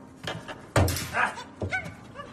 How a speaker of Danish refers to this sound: Ja, den er levende. Det er den sgu. Det er, det er jo min øh, parrygtamarin. Det er jo en lille abe.